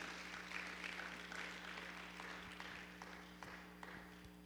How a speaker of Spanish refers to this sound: Alguien puede celebrar, alguien puede decir amén, alguien puede aplaudir al Señor. Gloria a Dios.